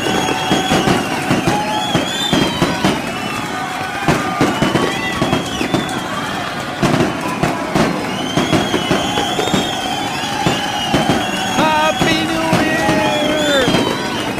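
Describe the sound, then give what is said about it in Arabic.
Fireworks explode in a dense, continuous barrage, sharp cracks and bangs overlapping with crackling bursts and whistling rises, loud and unbroken for the whole stretch. “نعم يا السادة حان وقت الألعاب النارية”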